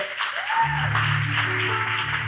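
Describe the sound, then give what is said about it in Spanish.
An audience at a church service claps steadily throughout to welcome a guest, a dense wash of applause, while a low musical tone swells in underneath after the first half second. “Lo recibimos con un aplauso de cariño.”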